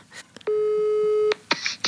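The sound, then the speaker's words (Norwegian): A steady electronic telephone ringing tone, heard while placing a phone call, holds for nearly a second, clean and fairly loud, flanked by brief clicks and faint noises; no one speaks. “Jeg ringer til bemor med en gang.”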